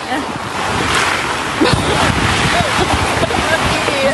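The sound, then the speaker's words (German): Strong storm wind roars steadily across the microphone at 3 a.m. with gusty buffeting, a dense rushing noise that fills the whole scene, with faint voices occasionally surfacing underneath. “Es ist Sturm.”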